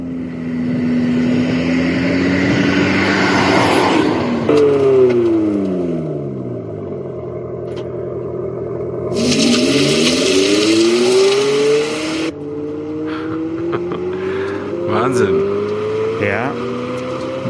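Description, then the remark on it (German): The sound of an Abarth 500e electric car revs up and down repeatedly at its presentation on the roof of the former Fiat factory, Lingotto. Its pitch sweeps upward in strong harmonic climbs, loud, with abrupt cuts between bursts and a brief hiss of noise in the middle. “Da wurde ein Auto präsentiert, was sich so anhört.”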